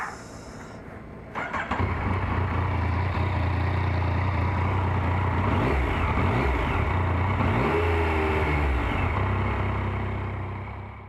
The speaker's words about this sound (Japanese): 片岡食品大宮工場来てみましたバイクで帰ります